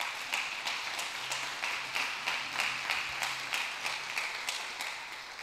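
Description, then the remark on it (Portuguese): An audience applauds Jesus steadily, many hands clapping in a dense, sustained wash with faint rhythmic peaks, moderately loud and continuous for the whole stretch, with no clear speech. “Aplauda Jesus se você crê.”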